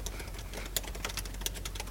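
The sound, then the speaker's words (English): Rapid keyboard typing, a steady run of crisp clicking keystrokes with a few sharper, louder taps standing out, heard on its own without any voices. “You love that keyboard sound thing that we have now.”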